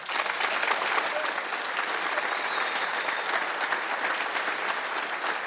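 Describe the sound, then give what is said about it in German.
Sustained audience applause as a broadcast switches over to a colleague in Qatar, a dense, steady patter of many hands clapping at an even loudness throughout, with no voices rising above it. “ich würde gerne rüberschalten mit einem Applaus zu unserem Kollegen Patrick Berger nach Katar.”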